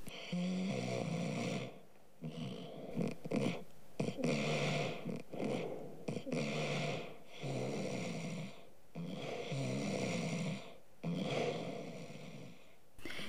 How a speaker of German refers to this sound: Trotz allem näherte sich Moosbart langsam dem Wagen, und nach einiger Zeit hört er Muffs und Halbschuhs zufriedenes Schnarchen.